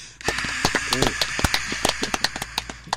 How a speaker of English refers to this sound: That was true crowd sound.